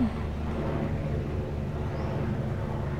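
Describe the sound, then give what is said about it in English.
A helicopter drones steadily overhead, its deep rumbling engine and rotor hum holding a constant level throughout with no break, unaccompanied by voices. “That's the first helicopter I've noticed.”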